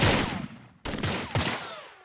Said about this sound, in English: The world erupted into gunfire once more.